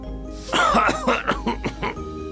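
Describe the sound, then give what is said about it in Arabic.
A rapid fit of about six harsh coughs, fairly loud, one right after another in a choppy rhythm, with no talking around them, from a person coughing after dust flew into his face while dusting furniture. “فتطاير الغبار في وجهه واخذ يسعل ويسعل كخروف اصابه البرد”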